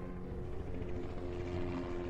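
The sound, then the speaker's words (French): An AS-350B Écureuil police helicopter flies steadily overhead, its engine and rotor making a constant low droning hum with a slight rhythmic flutter, unchanged in loudness throughout and with no voices. “Tu sais ce que c'est C'est un hélicoptère”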